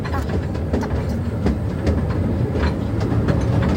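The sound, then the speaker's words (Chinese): A train rumbles steadily along the rails as it pulls into a station, a dense low roar with faint rhythmic clicks and brief metallic accents recurring through the whole few seconds, no voices. “火车的声音。”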